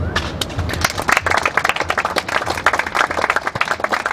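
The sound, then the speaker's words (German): Sustained applause from an audience after a literary reading, a dense, steady patter of many hands clapping at once, loud, with no voices. “Selbstverständlich gebührt derselbe Applaus auch den beiden Kunstzeugmädels”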